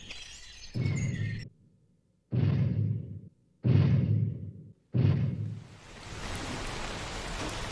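Heavy rain pours in a steady, dense hiss that takes over near the end, following a series of deep, booming thuds spaced about a second apart.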